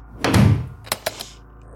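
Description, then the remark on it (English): The door of Tarafson's pawn shop swings with a heavy, rumbling thud, followed by a few sharp latch clicks as it shuts. No one speaks. “Okay, I'm gonna go in and lock the door.”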